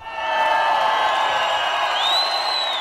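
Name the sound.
concert crowd cheering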